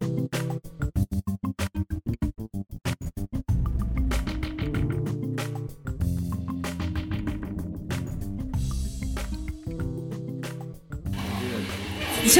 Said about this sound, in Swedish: Varje gång jag tar ett djupt andetag och ska börja så kör han igång den här jävla borren.